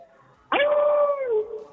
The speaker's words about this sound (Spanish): es un perro.